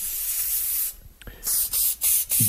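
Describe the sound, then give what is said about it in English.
A loud pepper spray aerosol: one long hissing blast, a brief pause, then four short, sharp bursts in quick succession, with no voices. “Really getting in there with the spray.”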